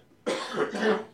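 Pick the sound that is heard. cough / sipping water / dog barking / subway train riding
cough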